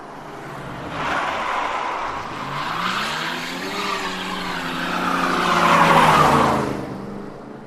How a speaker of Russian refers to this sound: И пока он ехал по заснеженной тропе, это не так ощущалось, но ледяное озеро не прощало ошибок. Стоило Боншайкеру выехать на лед, как он тут же потерял управление, а его начало кружить из стороны в сторону.